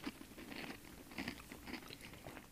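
Crisp crunching as two people chew fresh apples, with repeated bursts of crunch roughly every half second and a few wet smacking sounds, no talking.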